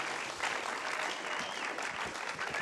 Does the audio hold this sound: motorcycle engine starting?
no